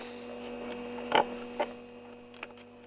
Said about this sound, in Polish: No oczywiście warczy, bo, no bo szum mechanizmu, wiadomo.